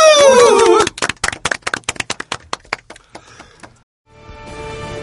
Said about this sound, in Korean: 큰 박수 한번 보내드리면서 마무리하죠.